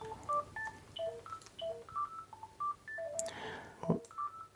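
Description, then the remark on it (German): A telephone rings with a quick, melodic run of short electronic beeps at varying pitches, moderately loud, with no one speaking. “Oh, äh, halt Entschuldigung, halt da klingt gerade ein Telefon.”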